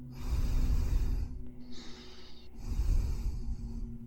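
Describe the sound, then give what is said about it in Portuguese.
Heavy, rasping breaths come through a phone line during a silent 1:30 a.m. call, two long drawn-out exhales separated by a brief pause, noisy over a faint steady hum, with no one speaking. “E do outro lado da linha, ninguém falou nada, mas dava para escutar uma respiração pesada”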